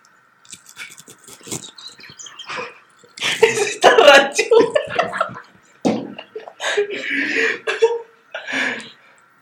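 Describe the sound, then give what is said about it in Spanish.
Harsh, choking coughs come in irregular loud bursts, mixed with throat clearing and strained breaths, building into a longer sputtering fit before trailing off. “Me estaba ahogando, güey.”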